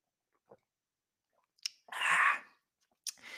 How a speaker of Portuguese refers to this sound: Digam-me coisas, dá mais um golinho, que isto, hora e meia a falar, Deus me livre.